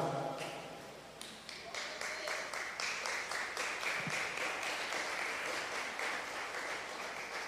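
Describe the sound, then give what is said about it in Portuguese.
An audience at a Christmas church service claps together in a steady, dense burst of applause for Jesus that grows fuller and more rhythmic after the first second, holding at a fairly even loudness without any speech. “Bom, gente, se essas palmas é para Jesus, tem que ser melhor, né?”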